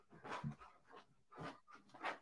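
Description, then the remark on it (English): Dogs wrestling nearby, with bursts of playful growls, grumbles and short yips coming in several quick surges over a couple of seconds, fairly close and moderately loud, no talking. “Oh my God you guys get to listen to me listen to me watch my dogs wrestle next to me is uh is where we're at now”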